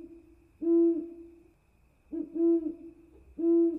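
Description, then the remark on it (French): An owl hoots three times at an even pace, each deep, resonant call preceded by a softer, lower lead-in note, clear and alone against a quiet background. “Sur ces mots, elle entendit le ululement d'un hibou.”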